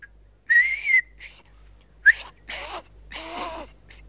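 A person whistles a short, breathy tune, a few clear sustained notes broken by airy, hissing breaths and pauses, with no talking.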